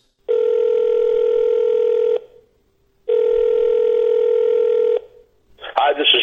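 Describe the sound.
A telephone call rings twice before going to voicemail, each ring a steady electronic tone lasting about two seconds with a short pause between, loud. A voice begins speaking right after the second ring.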